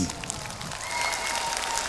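Steady applause from a crowd, a dense wash of clapping that holds at an even level throughout, with no voices standing out above it.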